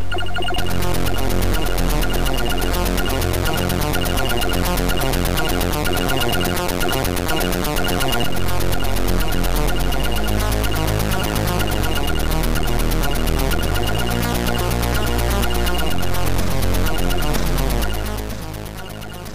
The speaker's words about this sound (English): And that's what created that that iconic early '80s computer game sound.